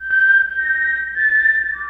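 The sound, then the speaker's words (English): A person whistles the Mockingjay whistle from Hunger Games, a short, clear melody of a few sustained notes, loud, with the pitch stepping down at the end. No talking. “That's the Mockingjay whistle from Hunger Games.”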